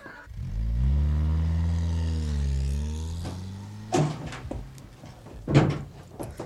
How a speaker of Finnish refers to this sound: Avaa ovi nyt, täältä tullaan.